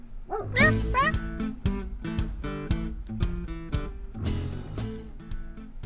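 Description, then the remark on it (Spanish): A dog barks loudly in a rapid, agitated series of sharp barks, with a few higher yelping cries mixed in, continuing without pause for several seconds, as three men from a stray-dog collection van catch it with a net and struggle to lift it in while it resists. “Con una red atraparon a Hércules y lo subieron con dificultad, porque el animal se defendió cuanto pudo.”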